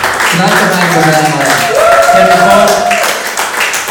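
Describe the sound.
A final round of steady audience applause at the end of a show fills the whole stretch, a dense wash of clapping mixed with cheering voices and a few sustained whoops rising above the crowd.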